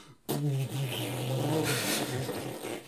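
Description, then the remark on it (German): A chord struck across all strings of a bass guitar at once rings out suddenly and sustains as a thick, muddy low rumble for a couple of seconds, loud, with no talking over it. “Wenn du das beim Bass machst, dann kommt der Rabbi nur so”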